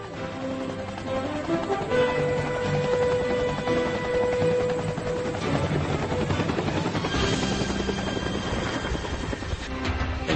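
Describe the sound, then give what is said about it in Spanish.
A Bell 47 helicopter's rotor chops steadily and loudly throughout, a continuous rhythmic thudding with engine whine, unbroken for about ten seconds with no voices. “Su característico sonido clop clop clop clop dio origen a la denominación chopper”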